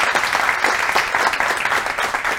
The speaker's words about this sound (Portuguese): Salva de palmas.